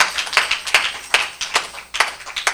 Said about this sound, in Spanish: Otro aplauso, el Señor merece más que esto, ¿ok? Otro aplauso más grande.